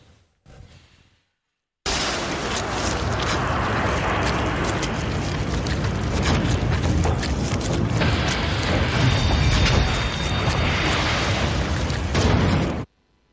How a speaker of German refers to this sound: Das ist ein Dampfkochtopf dem man das Ventil zugestopft hat, der fliegt einem um die Ohren irgendwann. Dauert ein bisschen, aber irgendwann fliegt er einem um die Ohren.